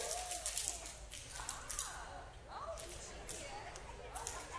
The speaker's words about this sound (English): That's a sound I've never heard in church before. The breaking of hundreds of pencils.